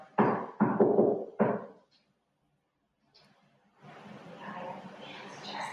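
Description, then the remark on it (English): Three loud, resonant knocks in quick succession, as if on a wooden door, heard in a played-back recording, followed by a pause of silence and then a faint, rising wash of indistinct background noise. “Gather and knock, and can you finish the knock?”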